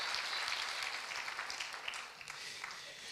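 A church audience applauds in praise of God, a dense, steady wash of many hands clapping together that holds evenly for a few seconds with no voices over it.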